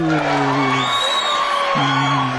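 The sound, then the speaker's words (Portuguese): A sound effect of a loud crowd cheering and applauding for a virtual audience, with steady dense clapping under sustained whoops and shouts that rise and fall in pitch throughout the short burst. “faz de conta que vocês estão aplaudindo e tá todo mundo ouvindo, mas não tá, tá? É tudo efeito sonoro aqui.”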